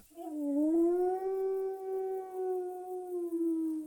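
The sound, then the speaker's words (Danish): A single long howl from a large wolf in a forest, rising briefly at the start and then holding a steady, mournful pitch for several seconds, loud with no other sounds. “Lige foran dem stod der en stor ulv.”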